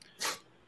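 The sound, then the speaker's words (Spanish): One short, sharp sneeze bursts out, a quick hissing blast that fades almost at once into quiet, with no talking around it. “Salud.”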